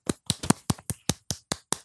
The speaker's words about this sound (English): Can you hear my clap?